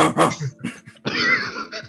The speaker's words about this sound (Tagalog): Narinig yung aso. Narinig yung aso. Okay, sorry. Gosh, nag-record ako ng podcast. Kasi tumatahol ka kanina.